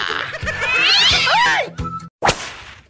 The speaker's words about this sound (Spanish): No, mejor agarra al gatito Satanás. ¡Ay! ¡En la cara no!